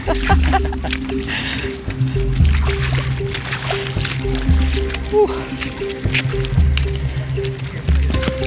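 Squelching footsteps in tidal mud, about four slow, heavy steps spaced roughly two seconds apart, each with a wet sucking squish, over a steady low hum.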